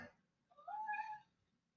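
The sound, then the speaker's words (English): A male cat gives a single drawn-out meow, rising then falling in pitch, fairly clear, preceded by a brief soft noise. “You see, he's filling you in about his day.”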